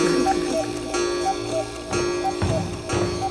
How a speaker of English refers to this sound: All the while, the age old clock ticked away on his mantle punctuated by the occasional whimsical cuckoo.